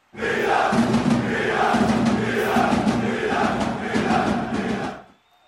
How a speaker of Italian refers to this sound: Facciamo partire un coro per i ragazzi.